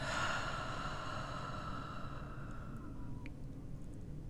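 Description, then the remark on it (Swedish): A slow, deep breath drawn in through the nose and let out through the mouth during a guided breathing exercise, soft, over a quiet sustained tonal drone with no talking. “Bara andas in genom näsan. Håll andan lite kort och sedan bara andas ut genom munnen.”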